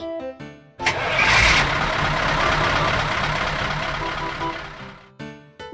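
A truck engine cranks and roars to life, then runs loud and steady for several seconds before cutting off, with short bursts of voice just before and after.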